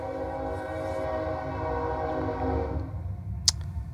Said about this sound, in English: There's a train.